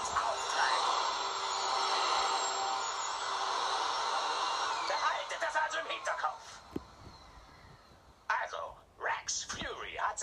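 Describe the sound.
A vacuum cleaner, brought in by a woman, whirs steadily and loudly for several seconds, then falters into choppy, uneven bursts as it stops and starts, with brief voices near the end.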